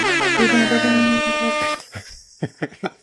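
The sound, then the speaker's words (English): A loud, sustained air horn blast rings out for nearly two seconds, then cuts off into a few short bursts of voices or laughter. “i need one of those air horns in the background it's like”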